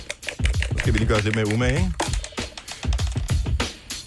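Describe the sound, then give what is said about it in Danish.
A die clatters across a hard tabletop in a quick run of sharp clicks, rolled to pick Oscar winners, while someone speaks over it in a drawn-out, sing-song voice. “Det er meget hurtigt at gøre det med en terning, øvrigt.”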